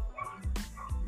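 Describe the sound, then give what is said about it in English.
Several dogs bark outside on the street in short bursts, a few yips and barks overlapping, fairly faint and muffled, heard from inside a house through open windows. “I don't know if you can hear the, the dogs the dogs barking, but it's not in my house.”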